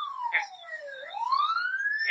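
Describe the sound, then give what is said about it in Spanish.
An ambulance siren wails on its own, its tone sliding steadily down and then climbing back up, fairly loud and clear, with a couple of brief noisy bursts alongside. “Y mientras que la ambulancia va.”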